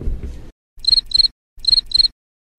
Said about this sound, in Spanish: Bien, ahí se escuchaba un grillito porque la verdad que fue un momento incómodo